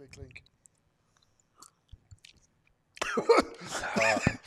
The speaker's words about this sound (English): love to hear all your drinking sounds in my ears. Oh, Dude. man. I'm a fire breathing dragon.